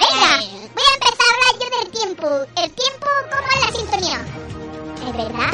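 A short, bright weather segment theme jingle with a bouncy, high-pitched vocal melody, loud, running for several seconds before trailing off into a softer, noisier tail.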